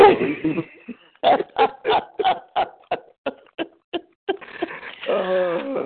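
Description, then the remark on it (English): A pet dog mimicking its owner's preaching makes a run of short, evenly spaced yelps and howl-like vocal bursts, fairly loud, followed by a longer drawn-out whine, with a human voice briefly at the start. “My daughter said, that dog mimicking you, Daddy.”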